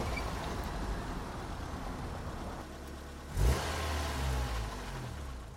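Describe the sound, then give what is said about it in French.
A car engine accelerates amid continuous city traffic of vehicles speeding past, a steady low rumble with a louder surge of revving passing by midway, then the droning traffic carries on. “Le froid était moins intense, on entendait le bourdonnement continu des véhicules passant à toute vitesse, des klaxons, des musiques sorties d'autoradios beuglant à tue-tête.”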